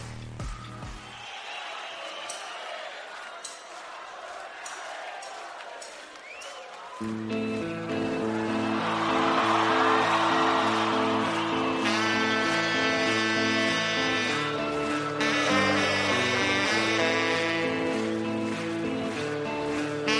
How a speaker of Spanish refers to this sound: nos vamos a despedir con una canción precisamente de un grupo de rock uruguayo, probablemente el más importante de aquel país.